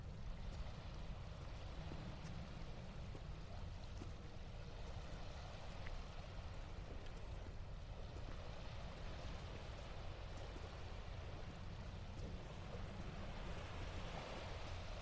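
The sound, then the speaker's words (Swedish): Ocean waves wash steadily against the shore in a continuous, full-bodied roar with a deep low rumble and hissing spray, with no voices, holding an even loudness throughout. “och vågorna bryr sig inte.”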